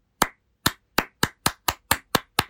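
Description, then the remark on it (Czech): A single person claps nine times in a quick, slightly accelerating rhythm, each clap sharp, with no voices in between. “já už slyším, že mi tleskáš, ale uh, není třeba tleskat po tom tvým zmatení kolem toho, jestli se ho zaslouží nebo ne.”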